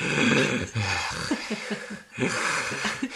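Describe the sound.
A voice imitates a raspy, wheezing breath, with noisy airy pulls broken by short rough catches, fairly loud, in two bursts separated by a brief pause.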